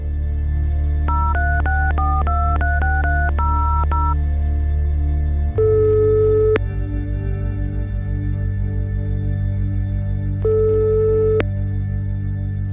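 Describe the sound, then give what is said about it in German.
A quick run of about a dozen touch-tone keypad beeps as a number is dialed, followed by two long ringback tones with a pause between, heard alone over a low steady hum. “Solange wir auf Antworten aus Mosambik warten, telefoniere ich mit Frank John”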